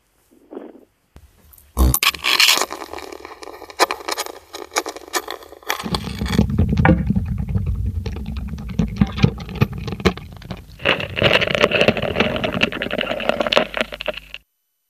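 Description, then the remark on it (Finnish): A ladybird walking, picked up by a contact microphone through the table it is on rather than through the air: dense, scratchy ticking and crackling clicks in an irregular patter, growing into a louder, rougher rustle midway, with no voices. “Onko tämä nyt maailman ensi ilta, kun kuunnellaan Leppäkertun ääni?”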